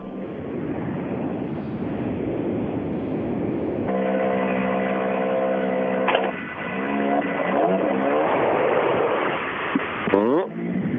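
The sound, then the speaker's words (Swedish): A car engine grows louder as it approaches, holding a steady drone before revving up and down in several sharp swells, over a constant wash of background noise. “nästa bil. Och e 3 jag tycker jag hör han där bak.”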